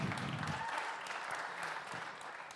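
A crowd claps steadily in a dense, even wash of applause that holds at a fairly strong level for a couple of seconds, with no speech over it.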